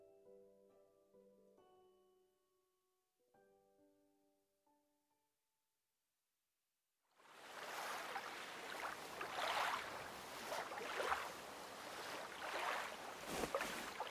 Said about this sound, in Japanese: 誰もいねえなま真冬の海だしな。なんでこんなところに来たかったんだ海が見たいって